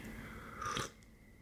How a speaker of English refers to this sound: Excuse me while I sip my tea.